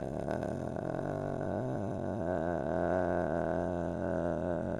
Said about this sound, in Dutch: klinkt heel creepy als je net pas komt luisteren. Maar dit is vocal fry, oftewel kikkeren. Dit is de allerkleinste trilling die je kunt maken door heel voorzichtig je lucht door je gesloten stembanden te duwen. Probeer maar.